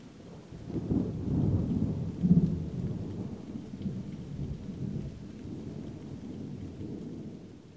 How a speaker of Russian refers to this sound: Дождь, родоначальник слез, именно это сегодня оплакивал.